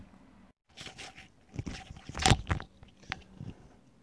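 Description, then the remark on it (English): Earphones being put on, heard as irregular rustling and scraping handling noises with a louder crunchy burst midway, no voices present. “So uh, that noise you just heard was me putting on my earphones”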